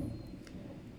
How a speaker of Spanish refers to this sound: Disculpen los truenos, este, aquí en este momento está lloviendo y, y pues se escuchan, supongo que se escuchan también en el audio los truenos.